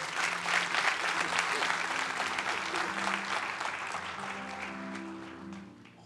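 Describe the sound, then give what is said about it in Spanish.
A church audience applauds God steadily, a dense wash of clapping that holds for several seconds before tapering off, with faint murmuring and a low sustained tone underneath. “Den un fuerte aplauso a Dios si puede.”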